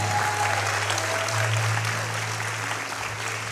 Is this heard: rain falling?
no